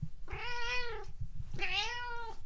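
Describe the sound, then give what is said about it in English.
A cat gives two long, drawn-out meows in succession, each about a second long and loud, with a brief pause between them and a faint low rumble underneath. “Well, he thought you were a pregnant girl cat nesting under his potting table.”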